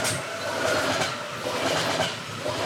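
A train rumbles steadily past, its rail cars giving off a continuous roar with a faint rhythmic clickety-clack over the tracks. No voices.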